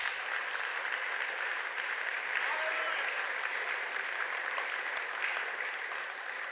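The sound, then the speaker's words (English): A church audience claps steadily together as a clap offering in honour of a pastor, a dense, continuous wash of hand claps with a few faint voices mixed in, holding at an even level throughout. “I think the Lord deserves a clap offering for him.”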